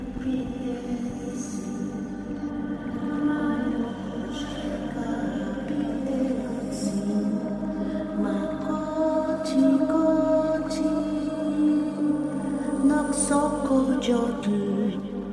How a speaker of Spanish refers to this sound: Escuchen. ¿De dónde viene? Del lago. Aquella canción, casi un lamento, fue dejando a los niños como en un trance hipnótico. Esa voz los llamaba. Era dulce y seductora.